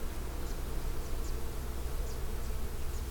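A dense, steady drone of many bees buzzing together in the morning as they push their long tongues into the furry catkins growing on a tree, continuous throughout, with a few faint high chirps flickering in the background.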